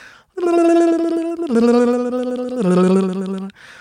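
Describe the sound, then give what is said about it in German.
A voice imitates a harp with a rapid, fluttering tongue-flap trill as a vocal exercise, gliding down over three sustained notes that each step lower, loud, for about three seconds. “Bei der Harfe nehme ich tatsächlich die Handbewegung mit dazu, als würde ich Harfe spielen und mache dann”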